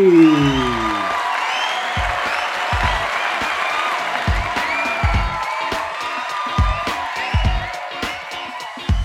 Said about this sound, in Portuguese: Recebam com uma salva de palmas Bela Marcati.